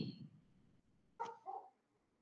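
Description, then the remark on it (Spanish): A dog barks twice in quick succession in Bogotá, a sharp first bark followed by a slightly softer second, moderately loud, after a brief low rumble of background noise. “perdón por el perro, no sé qué ocurre.”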